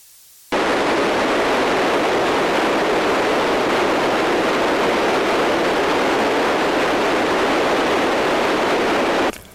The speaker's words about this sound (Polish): To szum FM-owy, zwykły szum, taki szum, szum jałowy.